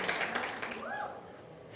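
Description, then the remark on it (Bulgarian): An audience applauds in a dense, steady wash of clapping that fades a little, mixed with crowd voices and a brief rising-and-falling cheer near the middle. “О, ако ръкопляскаш, ръкопляскай като че наистина вярваш.”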